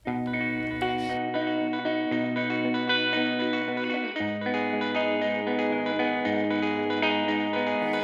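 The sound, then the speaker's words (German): An instrumental pop song intro plays, with dense, effect-laden chords over a steady sustained bass line that shifts to a new chord about halfway through. There are no vocals yet. “Davor aber noch etwas Musik für euch.”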